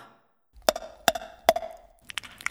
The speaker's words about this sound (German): Sie hat mit dem Schirm auf den Boden geklopft.